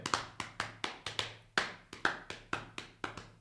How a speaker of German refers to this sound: Ich, ich, ich einmal klopfe ich jetzt mit äh, äh, vier Viertel, einmal drei Viertel.